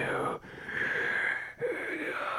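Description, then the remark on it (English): A voice imitates a wolf's heavy, raspy breathing, two long breathy exhalations separated by a brief pause, fairly loud with a hoarse, wheezing quality. “The with the wolf, the with breathing, the the wolf is like, you”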